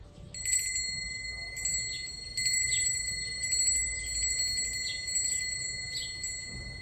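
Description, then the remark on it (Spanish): A small bell from a sound library, used for a stereo test, rings repeatedly, each strike leaving a bright, shimmering tone that lingers and overlaps the next, at moderate loudness over a faint low rumble. “Para ello vamos a usar una campanilla, o más concretamente vamos a usar una campanilla de una base de sonidos.”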